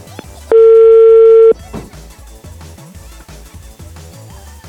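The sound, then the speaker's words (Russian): A single loud, steady telephone ringing tone sounds for about a second as a call is placed to a woman, then cuts off into busy, muffled background sound. “Сейчас я ей звоню, подождите.”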